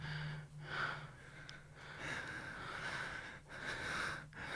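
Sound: exaggerated breathing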